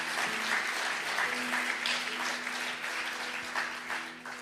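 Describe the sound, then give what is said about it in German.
An audience applauds steadily, a dense wash of many hands clapping at an even level that tapers slightly toward the end, with no voices over it. “Ja, da darf man sehr, sehr gerne zu klatschen.”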